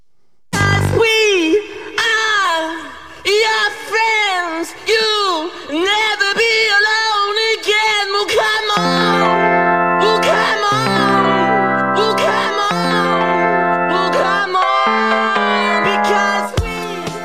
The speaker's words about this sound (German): Wir machen eine kleine DJ-Session. 30 Sekunden von dem Song. Ja. Das ist auf jeden Fall besser als unser Original-Intro.